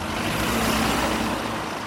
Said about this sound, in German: Kurz vor 8 Uhr morgens. Lieferwagen, Motorräder und Autos brettern über die Gneisenaustraße in Berlin-Kreuzberg. Auf zwei Spuren je Richtung.